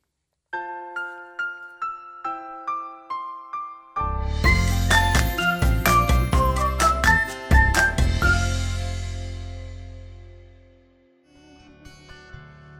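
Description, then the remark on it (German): A song plays: a tinkling, bell-like melody of evenly spaced single notes opens, then a loud full arrangement with deep bass and steady percussion joins, fading out before a softer passage begins. “Ich spiele jetzt nochmal ein Lied und dann hören wir uns gleich wieder.”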